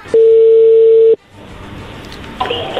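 telephone ringing

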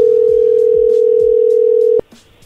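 phone tone

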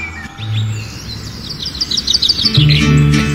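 birds chirping

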